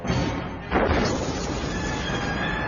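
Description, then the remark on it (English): A glass eye explodes, destroying a house: a sudden explosion bursts out under a steady roar of noise, then crashing and rumbling debris carries on loudly. “Whitney Slater and I are in the front yard when the eye explodes, destroying the house.”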